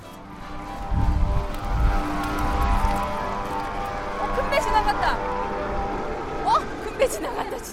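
A large ship's horn drones in a long, steady low tone as the vessel starts moving through the raised span of a lift bridge, layered over deep engine rumble and churning water, with a few faint chirps near the end.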